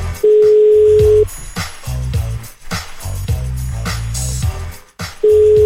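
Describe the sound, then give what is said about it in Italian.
A telephone ringing tone during a prank call: a steady, mid-pitched beep lasting about a second, a silent gap, then repeating. Loud, low, rumbling background sounds fill the pause between the tones. “Risponderà mai questa vittima?”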